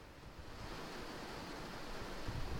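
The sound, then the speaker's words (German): Heavy rain pours down steadily outside, a dense, continuous hiss of water with a low rumbling undertone, fairly quiet and unbroken for the whole stretch. “Es regnet wie aus Kübeln oder wie Hunde und Katzen, wie der Engländer zu sagen pflegt.”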